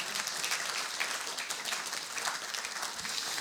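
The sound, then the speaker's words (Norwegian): An audience claps steadily, a dense, even wash of many hands with crisp bright transients, sustained throughout without pause and with no talking over it. “Nå må vi klappe.”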